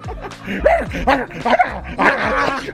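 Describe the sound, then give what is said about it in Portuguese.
A person imitates a dog's barking, letting out about five loud, rough woofs in quick succession with hardly a pause between them. “Para de latir! Eu queria latir! Porque eu faço dublagens fidedignas você é um cachorro gente, né?”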